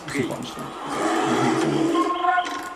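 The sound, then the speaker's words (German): A loud, drawn-out roar of a bear in a video game rumbles for a couple of seconds, its harsh tone swelling and holding steady with some clattering effects mixed in. “Ah, scheiß Bär, ey.”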